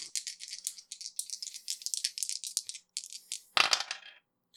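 Dice rolled for an attack in a tabletop role-playing game rattle and clatter across a hard tabletop in a rapid burst of bright, clicking impacts, ending with a louder final knock as they settle, with no voices.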